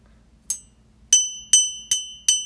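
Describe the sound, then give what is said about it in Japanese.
A mug handle clinks five times, sharp bright ceramic taps with a short high ringing tail. The first is lighter, then four steady, evenly spaced strikes follow with no talking. “こんな感じでえっ、とこのねマグカップの取っ手の音なんですけどこれが”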